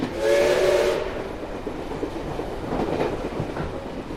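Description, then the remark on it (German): A steam train carrying a Russian delegation from Moscow toward Liguria in 1922 rolls along the rails with a steady rumble and clatter, its whistle sounding loudly for about a second at the start before the chugging continues alone. “Die Eisenbahnfahrt der russischen Abordnung nach Ligurien hat am 27. März in Moskau begonnen.”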